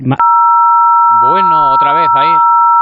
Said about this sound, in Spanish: Vamos a despertar ahora a todos los oyentes de Onda Cero ¿eh? con ese pitido.